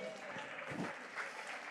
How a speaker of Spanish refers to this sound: ¿Cuántos pueden darle un aplauso, Señor, en esta hora?